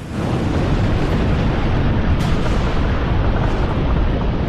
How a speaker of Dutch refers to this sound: boert de aarde. Een vulkaan-explosie. Het gebeurt. Ook vandaag nog.